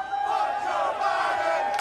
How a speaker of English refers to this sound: as you can hear the chants from the, the crowd,